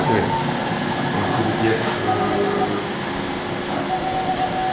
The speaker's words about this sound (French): C'est quoi ça C'est une imprimante 3 Elle fait. Elle produit maintenant des supports pour un pour un